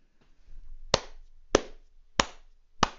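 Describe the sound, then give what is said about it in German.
Four slow, evenly spaced hand claps from a single person, crisp, with short pauses between them and no voices. “Applaus.”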